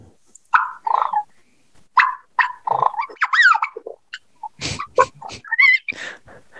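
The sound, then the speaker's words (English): A handheld turkey call makes soft yelps and quiet clucking, chattering notes in an irregular string of short, close bursts. Some notes rise and fall in pitch, and no one speaks. “This is a call I picked up the other day.”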